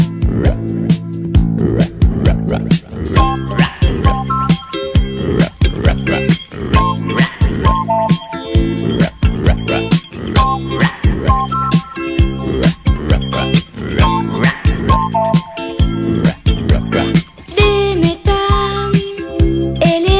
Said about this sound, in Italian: noi ci andiamo ad ascoltare la canzone originale